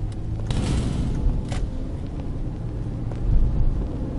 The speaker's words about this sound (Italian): Qui c'è un'auto.